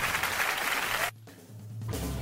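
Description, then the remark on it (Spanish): A dense burst of applause, many hands clapping at once, cuts off abruptly for under a second, leaving a low hum, then resumes just as loud. “Bueno, no acá está aplauso.”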